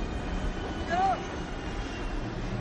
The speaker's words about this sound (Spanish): El coronel observa por la ventana mientras el helicóptero aterriza.